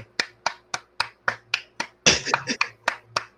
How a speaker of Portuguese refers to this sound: Palmas para esse herói.